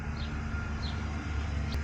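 A few short, faint bird chirps come at scattered moments over a steady low rumble of tractors passing now and then, outdoors with no one talking.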